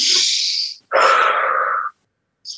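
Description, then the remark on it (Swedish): A person demonstrates deep breathing as done through labor contractions: a long, loud hissing inhale, then a slower, fuller exhale, and the start of another breath cut short at the end. “En väldigt djup andning.”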